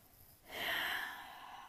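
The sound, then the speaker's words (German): A single loud breath rushes into the microphone, a harsh airy exhale that swells quickly and then slowly fades. Nobody speaks. “ähm, sorry, falls, falls man das gerade richtig hart äh, atmen gehört hat.”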